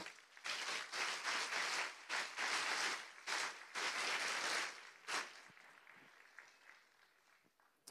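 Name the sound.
audience applause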